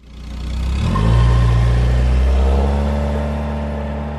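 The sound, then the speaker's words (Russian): An old three-wheeled car's engine revs up loudly, its rough, chugging drone rising in pitch and then holding steady for a few seconds, with no voices. “хрупкой трехколесной машины, на которой еще более хрупкая женщина совершила свой эпохальный подвиг.”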